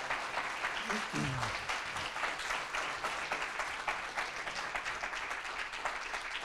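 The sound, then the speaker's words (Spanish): Steady audience applause welcoming first-time visitors at a gathering of Hispanic Foursquare churches, many hands clapping in a dense, continuous wash at an even loudness throughout, with a brief low voice murmur near the start. “Hay alguien que hoy nos esté visitando por primera vez, seguramente más de uno, pero queremos que levante su manito, por favor, y queremos darles a todos un fuerte aplauso de bienvenida.”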